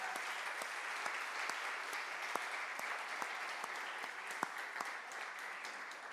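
A church audience applauds for Jesus after a prayer, steadily for several seconds, a dense wash of many hands clapping with a few sharper individual claps standing out, and no voices.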